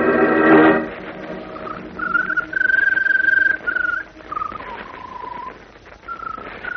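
A Scarlet Bird sings in long, clear whistled notes, several sustained phrases that dip and rise slightly in pitch, separated by short pauses, after a brief buzzy burst at the start. No one speaks.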